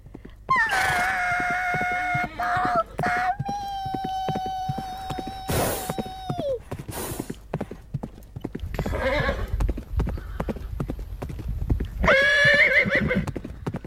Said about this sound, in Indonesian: Tiba-tiba terdengar suara dan gemuruh kaki kuda serentak berhenti.